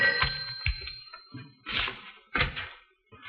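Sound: telephone ringing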